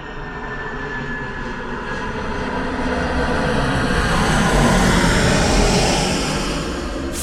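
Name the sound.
aircraft noise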